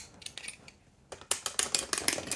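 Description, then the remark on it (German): Rapid mechanical ratcheting clicks as a clockwork toy with three white pigeons is wound with a key, a short burst, a brief pause, then a faster, louder run of clicks, with no talking. “So, ich ziehe jetzt mal auf.”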